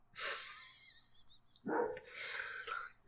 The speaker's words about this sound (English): Oh, dogs.